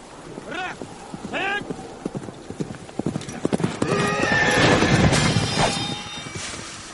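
A horse whinnies twice in quick succession, then hooves clop steadily, building into a busier stretch of clattering steps with more neighing and a noisy background.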